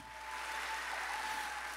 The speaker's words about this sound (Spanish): Y si tú lo crees, dale un aplauso fuerte al Señor.